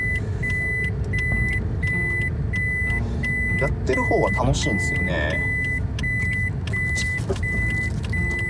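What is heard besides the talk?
car being parked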